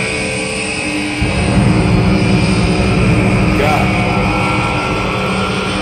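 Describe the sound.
A massive, deep rumbling roar surges in after a second and holds loud and steady, like a huge creature bellowing, with a brief startled voice over it.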